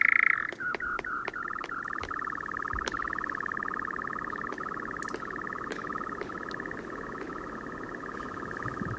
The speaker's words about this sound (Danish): Den klapper med sine vinger. Den klapper med vingerne, mens den siger sådan... Ja, det, det ved jeg ikke, hvad er for et dyr. Ja, det var... Jeg ville jo sige, at det var en natravn, men altså...